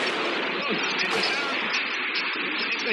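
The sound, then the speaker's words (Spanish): A dense, continuous roar of a jet fighter's aerial bombing of La Moneda around midday on 11 September 1973, with explosions blurring into a loud, harsh wall of noise that holds steady for the full few seconds and never drops to quiet. “bombardear la moneda.”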